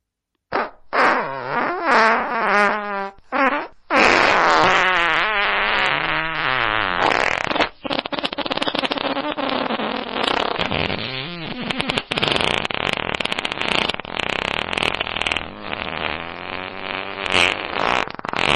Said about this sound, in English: he turns into a fart. Like he goes from burp yeah, to fart. Everyone's farting. Listen, listen to this.